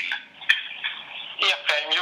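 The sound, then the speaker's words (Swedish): A thin, tinny telephone line carries a steady ringing tone, broken by a few sharp clicks and brief muffled voice-like bursts near the end. “Ska, ska vi ringa från vårt nummer eller ska, så att han ser att det är vi som ringer eller ska vi ringa från skyddat nummer?”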